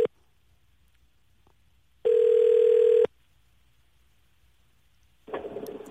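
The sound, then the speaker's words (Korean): A telephone ringback tone sounds while a call is placed on a live broadcast to a reporter at a logistics warehouse: a steady mid-pitched buzzing tone lasting about a second, preceded by a brief tone blip and followed by a softer burst of sound. “9910님 한번 전화 걸어보겠습니다.”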